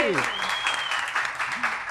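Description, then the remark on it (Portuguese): Dense, steady applause from an audience, a continuous crackle of many hands clapping at once for about two seconds, with a brief voice tone sliding through underneath. “Então, primeiro eu gostaria que todo mundo aqui que está aqui na nossa flagship recebesse com uma salva de palmas as nossas convidadas maravilhosas, poderosas.”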